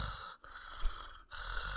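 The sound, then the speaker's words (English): Heavy nasal breathing right up against the microphone, a rough, airy rush of breaths broken by two brief pauses, with no talking. “Oh, my nerdy breathing like catches well, it, in the podcast.”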